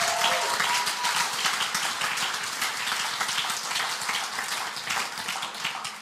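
A church audience applauds for God in a dense, steady wash of clapping that holds at an even loudness for about six seconds, with no voices standing out above it.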